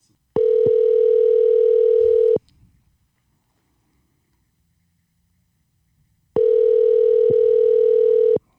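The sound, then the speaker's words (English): Two steady ringback tones from an outgoing phone call to a cousin, each buzzing for about two seconds with a long silent pause between them, clear and fairly loud with no talking. “My cousin was on here, and I want to call her real fast.”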